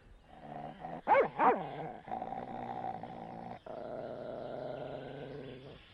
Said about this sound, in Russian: Ну зачем без толку лаять? Бери пример со своей хозяйки, ведь я молчу. Укусить можно и молча.